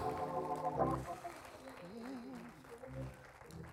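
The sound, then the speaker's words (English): An audience at a worship service jumps to its feet and claps their hands unto the Lord in a steady, dense patter, mixed with shouting and singing voices that rise and fall over the applause. “Come on, jump to your feet and give the Lord a shout. Jump to your feet and clap your hands unto him.”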